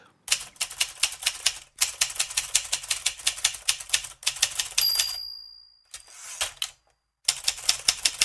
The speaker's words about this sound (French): D'une machine, à écrire, c'est bien pas un clavier d'ordinateur, c'est une bonne vieille machine Olivetti